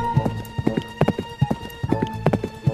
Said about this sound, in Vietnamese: tất cả các con ngựa khác đã ra khỏi chuồng và đang chạy ở bên ngoài. Cô đã cố gắng bắt kịp những con ngựa khác để hỏi xem họ có chuyện gì đang xảy ra và họ chạy đi đâu.